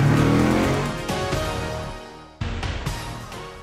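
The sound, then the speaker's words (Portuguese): A car engine revs hard, its roar climbing and dropping in a few quick bursts, with a sharp jump in pitch near the end before it settles back down. “acelera daí que eu acelero daqui, vambora?”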